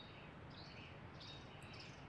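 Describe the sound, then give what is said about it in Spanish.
A striped woodpecker (carpinterito) calls in a few short, high-pitched bursts over steady outdoor background hiss, fairly faint, with no voices. “El carpinterito. Se llama así porque los pájaros carpinteros son el doble de su tamaño.”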